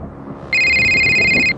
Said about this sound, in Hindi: तभी मेरा मोबाइल बजा